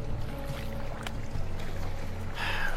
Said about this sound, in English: Oh, here comes the waves.